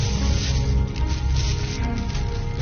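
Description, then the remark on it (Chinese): A plastic bag, one of two, rustles and crinkles steadily as it is unwrapped during a police recovery of stolen goods (100,000 Hong Kong dollars) at the place where they were buried. A dense, continuous crackling texture at an even, moderate loudness for a few seconds, with no one speaking. “两个塑料袋，前面一个塑料袋，还有，我知道还有一个塑料袋。”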